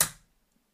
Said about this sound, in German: Bei der Sensor klingt das Ganze ein bisschen, ja, ein bisschen nobler. Die kann dann noch die Lupe hochklappen.